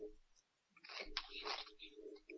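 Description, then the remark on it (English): Crackly crunching of someone chewing tortilla chips, a burst of brittle crunches over about a second, fairly quiet, with no talking. “They're tortilla chips.”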